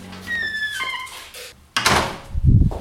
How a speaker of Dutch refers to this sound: Oh, de deur gaat dicht. De deur gaat dicht.